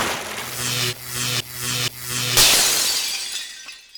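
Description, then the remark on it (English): A pulsing electronic hum cuts off into a loud crash of a plate glass window shattering as a karaoke machine is propelled out through it, followed by a tinkling shower of falling shards that fades out. No one speaks. “Wow, that karaoke machine just propelled itself right out that plate glass window.”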